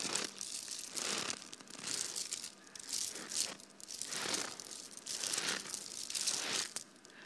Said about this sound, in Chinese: 比方说，今天有一个四十度的雪的时候，我这临时给大家表演一下啊！你看，四十度雪的时候就出那个冰碴的声音了。